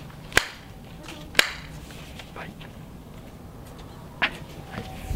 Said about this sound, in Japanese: 今拝殿の前でございますもういつもながらね、はい、お賽銭も多めにしておきました。はい。二拍手。